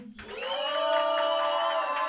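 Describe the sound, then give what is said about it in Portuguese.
An audience bursts into loud, sustained cheering and shouting to vote for Jojo in a beat contest, swelling quickly and holding steady, with high-pitched screams and whoops riding over the crowd noise. “Barulho bem honesto agora para Jojo.”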